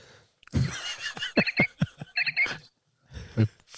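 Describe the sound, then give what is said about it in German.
Birds chirp in a quick, irregular series of short, bright calls, moderately loud, with a brief pause before a final flurry. No one speaks. “Vögel. Sehr schön.”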